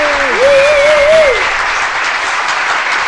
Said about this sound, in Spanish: Un aplauso, señores, por usted.